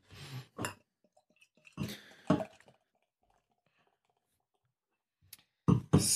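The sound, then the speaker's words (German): A bottle of Hersbrucker Gebirgshopfen beer, the first of three bottles being tasted, is opened: a scrape and a few sharp clicks and pops from the cap, a brief fizzy burst, then quiet before more clinking handling noises at the end. “Ich mache jetzt mal auf, hätte ich gesagt.”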